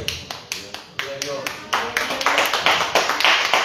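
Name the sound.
audience clapping hands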